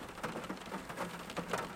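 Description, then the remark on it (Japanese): Steady rain falling outdoors, a continuous soft hiss with scattered louder patters of drops, fairly quiet and even throughout, with no voices. “みんな雨の中でも走るとト レイランナー元気ですね珍しいなねえ”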